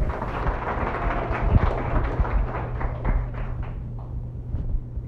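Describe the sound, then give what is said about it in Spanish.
An audience claps steadily for several seconds for a participant named Nicky, a dense wash of many hands at a fairly even level, thinning slightly toward the end. No one speaks over it. “Dale un fuerte aplauso a Nicky, por favor.”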